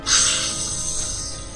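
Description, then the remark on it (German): A single loud, harsh snake screech, a hissing, high-pitched cry that bursts out sharply and then trails off over a second or so, with no voices around it. “Und äh, die Schlange schreit einmal laut auf”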